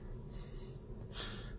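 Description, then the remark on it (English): A dog snorts twice in quick succession, short breathy bursts of air through the nose, fairly loud, with no talking around them. “No, that was the dog.”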